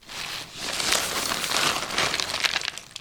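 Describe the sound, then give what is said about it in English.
About a hundred small plastic bags holding animal bones crinkle and rustle as a scientist sorts through them on a table in the back room of the Museum of the Aleutians in Unalaska, a dense, continuous crackling with irregular sharper crinkles throughout and no voices. “is sorting through about a hundred small plastic bags.”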